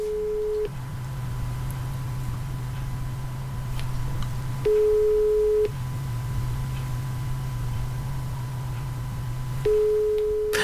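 A telephone ringback tone purrs steadily: three one-second beeps spaced about five seconds apart, heard through the line over a constant low hum, with no one talking.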